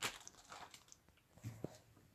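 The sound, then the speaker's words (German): An empty plastic bag crinkles and rustles in short, irregular crackly bursts, fairly quiet, with no voices. “Das ist nämlich einfach nur eine leere Plastiktüte.”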